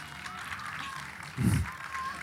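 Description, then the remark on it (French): A crowd at the Festival Vive applauds the participants steadily, a dense wash of many hands clapping at once, with a brief low thump partway through and no clear talking on top. “Vous pouvez les applaudir là, c'est maintenant.”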